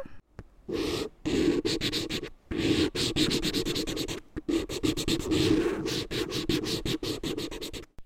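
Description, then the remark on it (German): A pen scratches steadily across rough paper in quick, repeated strokes with brief pauses between bursts, a dry, gritty scraping sound with no voices. “Also es ist sehr kratzig, es muss ein äh, raues Papier sein oder es ist ein rauer äh, Gegenstand.”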